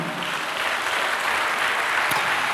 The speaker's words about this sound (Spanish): Dale un aplauso a Cristo, hermano, a su nombre, gloria.